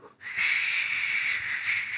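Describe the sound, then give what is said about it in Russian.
A storm-imitating instrument brought from Australia is turned over, giving a steady, bright rushing hiss that swells in quickly and holds for about two seconds, with no voices. “Я из Австралии привез всякие инструменты, в том числе бурю.”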